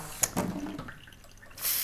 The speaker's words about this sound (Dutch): gootsteen zo uitdeuken door de hitte.